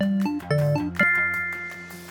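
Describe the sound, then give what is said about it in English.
A food trivia quiz timer chime rings out alone, marking that 10 seconds are up to lock in an answer: a quick run of bright electronic notes, then a final tone that lingers and slowly fades over about a second. “That chime is your indicator that 10 seconds is up and it's time to lock in your answer.”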